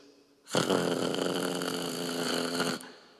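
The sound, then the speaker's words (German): A voice imitates an electric toothbrush, with a microphone held as the toothbrush: a loud, steady, rasping buzz with a fast rattling texture, held for just over two seconds before cutting off abruptly. “So sieht Zähneputzen bei uns daheim aus.”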